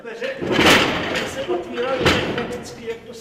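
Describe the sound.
A lift door at a former coal mine slams shut with a loud bang, followed by a second heavy clatter about a second and a half later, over a reverberant room tone with faint murmuring voices.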